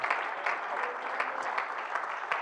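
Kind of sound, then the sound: crowd, audience hand clapping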